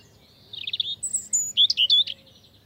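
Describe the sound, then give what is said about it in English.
A European robin, also called robin redbreast, sings a short, high, liquid phrase of thin whistles and quick trilled notes over a faint low background hum. “a distant relative, a bird not much bigger than a chickadee, the European robin. Like the American robin, the European robin is a bird of yards and gardens and has a red orange breast, so it's often called robin redbreast or just robin.”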